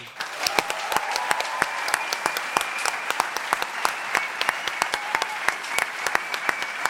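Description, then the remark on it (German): A large crowd at a sold-out live show applauds steadily, dense clapping with sharp individual claps popping out irregularly over a continuous wash of hands, loud and sustained for the whole stretch, with faint cheering mixed in. “hey, können wir nochmal bitte einen, einen riesen Applaus für euch haben?”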